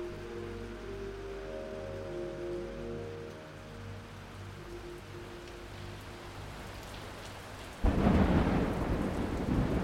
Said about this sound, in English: The storm was fearful, and as it boomed loudly among the chimney pots, it made me shudder. When a sharp puff came, it seemed to be like a distant gun.